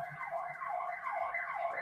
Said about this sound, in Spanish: Eh, madre mía, la sirena.